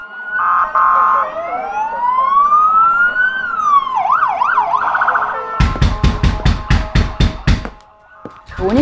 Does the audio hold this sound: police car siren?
yes